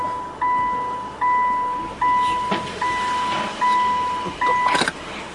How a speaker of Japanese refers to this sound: すごい車庫入れすごい失敗してる